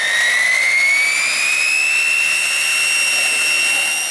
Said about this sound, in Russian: А еще его называли свистком за характерный звук работающих двигателей.